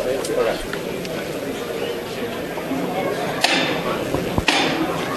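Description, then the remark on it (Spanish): A capataz's hammer knocks twice on a procession float, two sharp, hard raps about a second apart, rising over a steady murmur of crowd voices and chatter. “Suena el martillo.”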